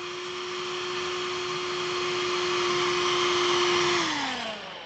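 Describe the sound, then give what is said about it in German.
A voice imitates a vacuum cleaner with a steady, noisy whirring drone held for about four seconds, then winding down in pitch at the end, loud. “mehr Ani-Imitation, mehr raab imitation Staubsauger hat noch gefehlt”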